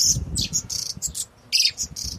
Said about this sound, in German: Also vor mir sind jetzt fünf Käfige und überall sitzen so kleine Vögel drin und die zwitschern ganz schön laut und ich glaube, die haben wirklich Hunger.